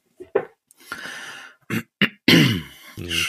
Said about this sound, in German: Ich muss mich auch nochmal. Nee, darf ich nicht. Ich darf mich nicht räuspern. Sonst wird es zur Gewohnheit.